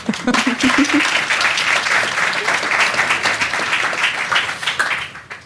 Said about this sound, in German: Aber ein Applaus tut es vielleicht ja auch. Sehr schöner Applaus. Vielen Dank.